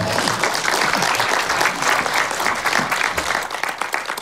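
An audience applauds steadily, a dense wash of many hands clapping that stays loud and even throughout, with faint voices mixed in beneath.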